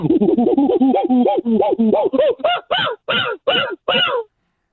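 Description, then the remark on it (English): A man's voice imitates monkey calls, starting with rapid chattering hoots that slow into a string of distinct, rising whoops, loud, ending abruptly. “No, we have to hear the monkey now.”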